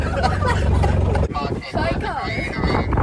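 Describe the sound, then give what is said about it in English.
A small car or buggy's engine hums steadily, with wind buffeting the microphone, and people begin talking over the running engine partway through, as it carries people on the way to meet the cast of a musical. “So … doesn't know how to reverse this car or this buggy.”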